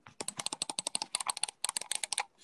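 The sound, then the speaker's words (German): Rapid keyboard clicking, a dense run of sharp key taps in quick succession with a brief pause midway, no voices over it. “Also ich klicke ganz schnell.”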